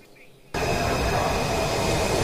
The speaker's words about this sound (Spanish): Como pueden ver, este tren acaba de llegar a esta estación muy cerca de Washington DC